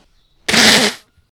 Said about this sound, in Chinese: 这是擤鼻涕的声音